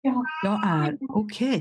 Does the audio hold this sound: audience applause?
no